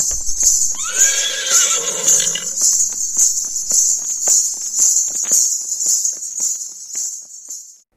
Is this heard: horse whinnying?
yes